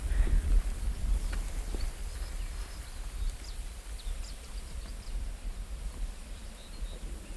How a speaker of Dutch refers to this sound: het vogeltje wat je nu hoort, dat is de zanger.